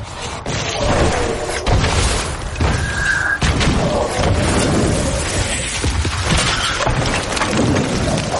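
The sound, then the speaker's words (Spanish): Artillery shells falling and exploding near a trench: heavy, continuous rumbling blasts and deep booms roll one after another, loud, with a brief whistling tone cutting through amid dense crackling debris noise as earth thrown up by the explosions falls. “Las bombas caen cerca de la trinchera.”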